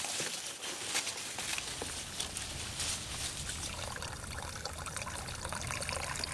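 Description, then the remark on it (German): Yellowish juice from a canister pours steadily through a coffee filter that catches drowned wasps, fruit flies and other insects, a continuous trickling splash that holds an even level for several seconds with no one speaking. “nimmt sich den Kanister und gießt den gelblichen Saft durch einen Kaffeefilter.”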